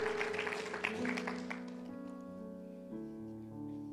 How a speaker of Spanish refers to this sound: Está cerca, dale un fuerte aplauso a Cristo, porque está cerca. Él está cerca, muy cerca.